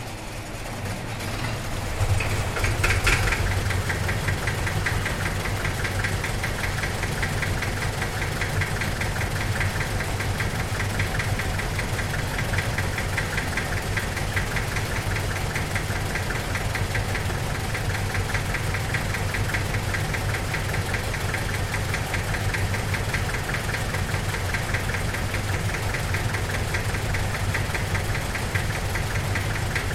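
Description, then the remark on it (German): Twelve old tractors from the 1950s and 60s, up to 70 years old, idle with two- and three-cylinder engines in a semicircle in a three-sided farmyard opposite the Denkmalschmiede Kaditschs: a steady, knocking chug and deep rumble that swells in after a couple of seconds and then holds unbroken throughout, with no voices. “der Komponist hat hier zwölf Landwirte aus der Gegend zusammengetrommelt, die ganz bewusst Traktoren aus den 50er und 60er Jahren mitbringen sollen.”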